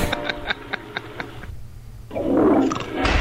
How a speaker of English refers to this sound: Oh, we have toilet there flushing